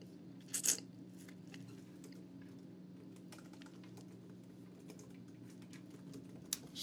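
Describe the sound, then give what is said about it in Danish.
Quick, light clicks of typing a Google search on a computer keyboard, in irregular bursts over a steady low hum, with a couple of sharper louder taps near the start and end. “Så skal vi vist ud i noget Google-søgning her.”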